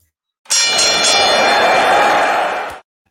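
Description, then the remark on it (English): A wrestling ring bell rung in a rapid, loud flurry of clanging strikes that blur into a sustained metallic ringing for a couple of seconds, then stop abruptly. No one speaks. “I'm going to ring the bell.”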